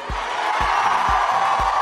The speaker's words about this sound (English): Wait, are those people cheering for climate change?